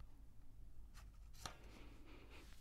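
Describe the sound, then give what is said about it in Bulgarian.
A page of a picture book about a witch and her cat is turned with a soft papery rustle: a brief swish followed by a sharper flick, quiet, with no voices. “Хайде да отгъхнем страницата, за да видим какво се случва по-нататък.”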